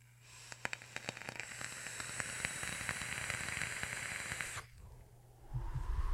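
A vape coil in a Voltrove 30 millimeter atomizer, on a dual 18650 Jake Scrapwood mod and filled with tropical e-liquid, crackles and sizzles for about four seconds. It is dense with sharp popping clicks, then cuts off abruptly, leaving a low hum and a soft rustle.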